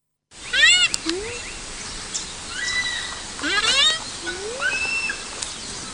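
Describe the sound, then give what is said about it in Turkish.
High-pitched squeaky calls from a rhinoceros calf, a series of thin rising and falling whistles repeating in bursts over a steady background hiss. “Butonluk dostumuzun yavrusunun sesi ise cüssesinden beklemeyecek gibi.”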